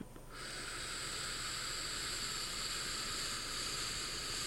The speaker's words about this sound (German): Ich mache jetzt mal Rauschen. Oh ja.